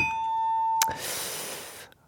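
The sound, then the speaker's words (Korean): A bright electronic correct-answer "ding-dong-dang" chime rings out on a sustained bell-like tone, then a clanging hit gives way to a second of hissy, shimmering noise. No one speaks. “지금까지 딩동댕 한 분이죠.”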